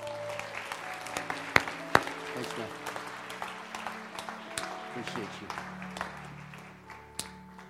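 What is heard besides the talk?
audience applause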